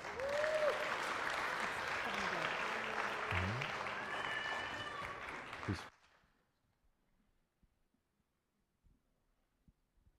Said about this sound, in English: And as he makes his way forward, please give him a round of applause.